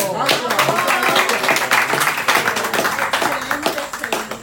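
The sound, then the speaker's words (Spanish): A crowd applauds steadily for several seconds, a dense wash of rapid, overlapping claps at a fairly loud, even level, with voices calling and chattering underneath. “Un aplauso.”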